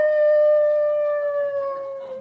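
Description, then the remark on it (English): A wolf lets out one long, loud, sustained howl, a steady mournful tone that sags slightly in pitch as it fades toward the end. No one speaks. “that sounded like a wolf.”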